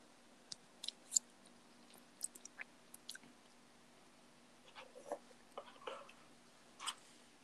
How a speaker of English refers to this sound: I don't know what the fuck that was that I just bit into, but it was very fucking juicy.